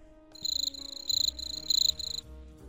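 Cricket chirping in a run of quick, rhythmic trilled bursts, clear and fairly close, stopping after about two seconds, with a faint low background hum and no voices.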